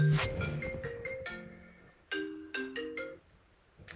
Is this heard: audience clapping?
no